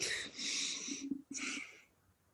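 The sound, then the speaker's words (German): A breathy cough in two raspy bursts, the first longer and the second shorter after a brief gap, with no talking around it. “Muss mal ganz kurz husten.”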